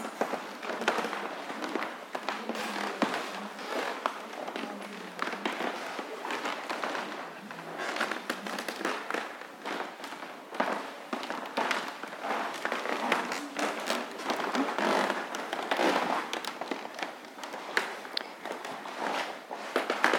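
Steady footsteps in slippers shuffle across a creaky wooden floor, boards groaning and ticking under soft-soled steps in a continuous patter with no voices.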